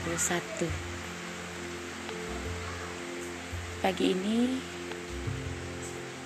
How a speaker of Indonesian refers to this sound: diawali dengan hujan Hujan ketika kekeringan sangat menginginkan hujan air sumber dari kehidupan.